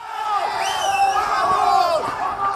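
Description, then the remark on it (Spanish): A large crowd at a street protest in Bolivia against the election results that declared Evo Morales the winner shouts and yells together in a sustained, loud roar, with overlapping raised voices and rising cries swelling throughout. “Y también provocó que salgan a las calles,”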